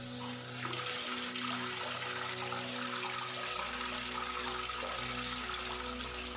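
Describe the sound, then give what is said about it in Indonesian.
A water faucet in bathroom number three of a toilet runs with a hissing trickle, turning on and off, while a low hum underneath shifts partway through. No one speaks. “Dan Suara kericik kritik keran air itu masih kedengeran di dalam kamar mandi nomor tiga.”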